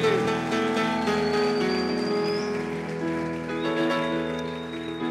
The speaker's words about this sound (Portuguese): Aplaude de verdade, já que vai aplaudir.